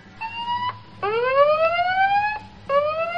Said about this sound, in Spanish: Así que es mi deber, es mi responsabilidad activar la alarma de spoilers.